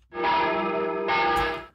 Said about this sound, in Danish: Jeg spørger, kan du forstå, hvis de lige nu, hvor der bliver sagt, at hey, de her kirkeklokker, den her, øh, øh, den her påmindelse